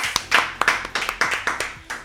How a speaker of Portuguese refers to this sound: som de 41 palmas.